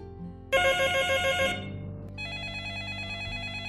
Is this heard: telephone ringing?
yes